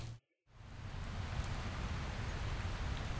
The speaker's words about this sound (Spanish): Dios, ¿qué no parece que esta lluvia vaya a terminar? Bueno, ya tendré que lanzarme así.